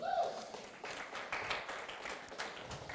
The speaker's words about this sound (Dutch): Applaus voor jezelf.